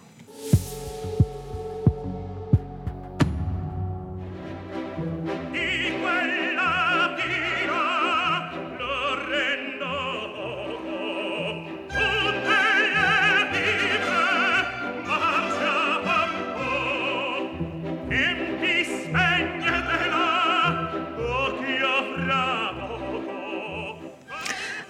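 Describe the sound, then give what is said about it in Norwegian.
Opera singers including tenor Placido Domingo perform the aria Di Quella Pira from Il Trovatore forcefully over a full orchestra, which opens with several sharp accented chords before settling into a driving, pulsing accompaniment. The music stays loud throughout. “Ja, Det du hører her, det er Di Quella Pira fra Il Travatore med bl.a.”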